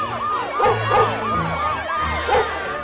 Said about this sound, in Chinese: 在浓雾和黑暗中，他们三人所到之处，竟是追缉人员的喊叫声、狗的狂吠声以及警铃声，使他们置身于四面楚歌的境地。